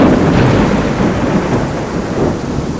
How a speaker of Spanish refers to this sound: Pero en su lugar, llegó una terrible tormenta.